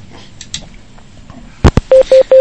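A telephone line connecting as a radio programme takes a listener's call: after a near-silent moment, two sharp clicks sound, then three short, evenly spaced mid-pitched beeps ring out loudly, with no talking.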